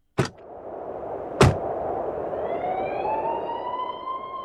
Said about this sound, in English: Already there are sirens in the distance.